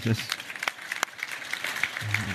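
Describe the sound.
Brief applause from an audience, a dense crackle of many hands clapping at moderate loudness, with a few sharper claps standing out and a voice briefly heard at the start and end.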